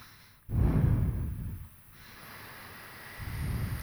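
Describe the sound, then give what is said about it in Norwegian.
Slow breathing in and out through the left nostril, with the right nostril held shut by the thumb and the mouth closed: a loud, airy inhale, a softer exhale, then another breath starting, with low rushing noise and no talking. “Og så lukker jeg munnen, og så puster jeg bare inn og ut gjennom venstre nesebor.”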